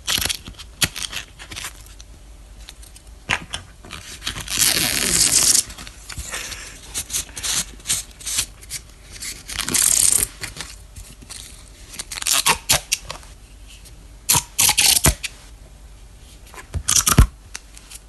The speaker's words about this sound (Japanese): これはプロレスの入場の際に投げ入れる紙テープを巻く音です